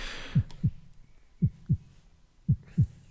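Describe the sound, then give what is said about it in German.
A deep, thumping heartbeat sound effect in three distinct lub-dub pairs, steady and evenly spaced and low, with nothing else but a faint background hiss. “so einen kleinen Herzton einbauen, weil viele Leute hören uns ja auch über Kopfhörer.”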